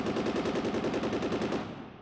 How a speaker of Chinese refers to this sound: 日本人大声的劝说，希望张自忠投降，而我们这个勇敢的军人却依旧握紧了枪，向敌人扫射。